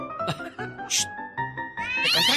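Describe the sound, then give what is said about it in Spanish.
A cat meows loudly, with a few short bursts of noise, then a long, drawn-out, whining meow that rises in pitch at the end. “juega con el gato como si fuera una muñequita esta.”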